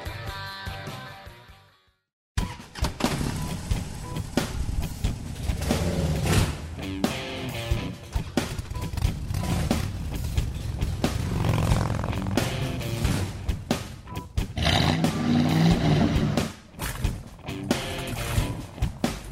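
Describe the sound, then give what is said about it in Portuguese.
A motorcycle engine starts up and revs loudly, a short burst that drops away before a sustained, rumbling roar with repeated surges takes over. No voices. “Esse arranque da moto no início, clássico, clássico.”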